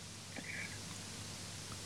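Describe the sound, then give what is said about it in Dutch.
A connection dropout fills the line with steady, low-level static hiss and a low hum, broken only by a couple of faint, brief warbling tones; nobody speaks. “Ja, ik hoorde weer even niks. Oh, Sorry, wat storing.”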